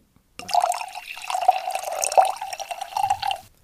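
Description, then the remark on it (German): Lightly chilled Kalterer See wine pours steadily into a glass for about three seconds, a continuous gurgling stream with a bright ringing tone and a few brief splashes, with no voices. “Ähm, und ich schenke uns jetzt mal ein.”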